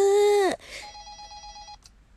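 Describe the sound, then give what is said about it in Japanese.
A loud, bright electronic tone opens, then gives way to a steadier pulsing ring with high harmonics, a phone signaling an incoming listener call to a radio call-in line, fading out after about two seconds. “じゃあ続いてのお電話を取りたいと思います。”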